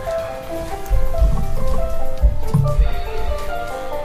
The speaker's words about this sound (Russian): Что-то так шумит? Это вода, наверное, да?